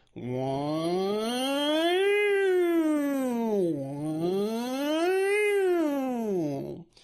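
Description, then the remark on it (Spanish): A single voice imitates a slow warning siren, the slowest of three siren types, as a continuous wailing tone that rises and falls twice over about seven seconds, steady and moderately loud, with no other sounds. “Pero una sirena, por ejemplo, sonaría así.”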